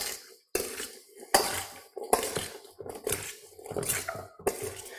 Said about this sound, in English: Let's get my monster spoon and give this a stir.